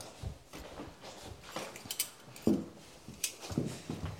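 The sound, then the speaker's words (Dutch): Metal cutlery and a serving spoon clink and scrape as they are handled, a series of short irregular clatters with soft rustling between them. “Uh, voilà, bestek. Dus en dan nog een opschepper.”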